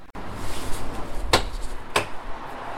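The front door of a house on Willemsparkweg opens with two sharp clicks of the latch and handle about half a second apart, over a steady low background hum. No one speaks.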